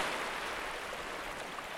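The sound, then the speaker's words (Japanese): A steady wash of ocean waves on a beach in Okinawa, Japan, a continuous hissing rush of surf with no distinct breaks, heard on its own without any voices. “傷ついた心を波音が洗う”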